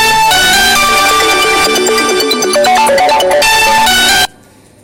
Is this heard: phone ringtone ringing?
yes